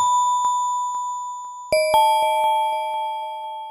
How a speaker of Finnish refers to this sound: H, alennettu E eli S ja A. Wow. Eiks vaan? Hesa. Ja mä pystyn kirjoittamaan näillä nuoteilla ja silloin mun Hesa Jingle kuulostaa tältä.